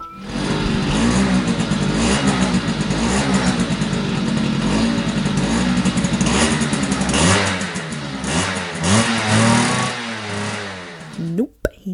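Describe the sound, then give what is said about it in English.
A dirt bike engine revs loudly and continuously as it is ridden in a field, its whine repeatedly climbing and dropping in pitch as the throttle opens and closes, before cutting off abruptly at the end. “he's been told that he can take it out for lengths of this particular field, and it makes him feel close to his emotionally unavailable father to ride the bike”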